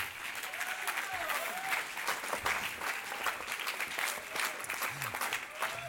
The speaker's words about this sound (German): Ganz herzlich auf der Bühne, geben ihm einen Applaus.